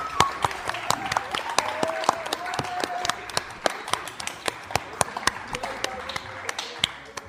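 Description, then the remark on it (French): An audience at the Théâtre Sainte-Marie applauds three guests steadily, with many sharp, irregular claps layered into a continuous patter of hand-clapping that holds at a moderate level throughout, with no talking. “Et de nouveau, vous pouvez aussi continuer d'applaudir pour nos trois invités, comme nous l'avons dit,”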